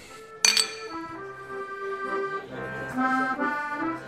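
Glasses clink together once in a toast, a bright sharp chime near the start that rings on briefly, followed by soft sustained tones with no talking.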